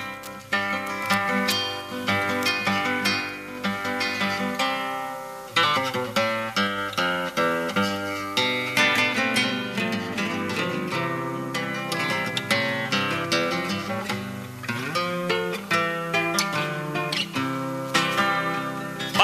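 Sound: milonga song playing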